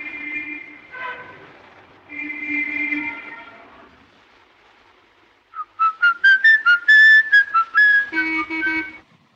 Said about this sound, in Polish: morderca przez cały film wygwizduje motyw z W grocie króla gór. Ten motyw przewija się przez cały film. W trakcie oglądania dociera do nas właśnie, że mordercę cały czas obserwujemy. Posłuchajmy tego, tego gwizdu.